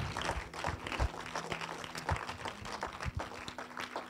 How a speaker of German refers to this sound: Lass uns diesen Leuten einfach mal einen Applaus geben, die, die ihre Hand so hochstanden.